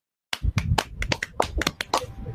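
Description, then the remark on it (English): A short burst of hand clapping, roughly ten sharp, slightly irregular claps packed into about two seconds, fairly loud with no voices. “Ladies and gentlemen, clap your hands for Mod Mother Jenna.”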